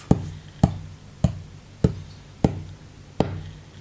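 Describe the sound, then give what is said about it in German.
Six firm, evenly spaced taps at a steady, unhurried pace as a secret code is punched into the door keypad of a very modern building with mirrored windows, each a short dull click with a slight low thud and no voices. “Aber ich habe den Geheimcode an der Tür. Ich tippe eine Nummer rauf”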